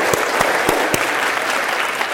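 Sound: audience applause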